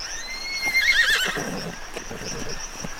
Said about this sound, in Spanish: Ahí está tu caballo.